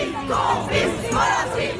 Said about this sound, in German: Polanski, Vergewaltiger, Publikum, Komplize skandierten frankreichweit Frauen und Männer vor den Kinosälen bei der französischen Premiere von Polanskis Film über die Dreifußaffäre.